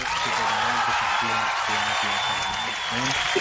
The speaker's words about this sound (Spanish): Tremenda, hermano. Aplausos de del público, aplausos de Chile, aplausos del festival.